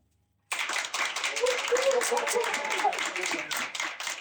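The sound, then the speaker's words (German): A live audience in a bar bursts into brief applause to show that real people are present, a dense patter of many hands clapping for about four seconds, steady, with a few voices murmuring and whooping underneath. “Aber um zum beweisen, dass es wirklich Menschen hat. Können ganz kurz klatschen?”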